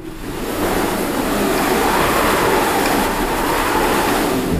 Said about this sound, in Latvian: Un tāda metode mums ir arī šeit, ka es eh, apskaņoju to kino ar visdažādākajiem objektiem, kas man te ir. Te ir tāds skaists cilindrisks aparāts ar rokturi, un ja mēs viņu pagriežam, tad sanāk vēju.